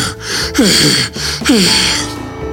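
Two loud, strained choking gasps, a voice imitating a wolf struggling for breath with a bone stuck in its throat, each a harsh rasp followed by a strangled rising wheeze, with a short pause between them.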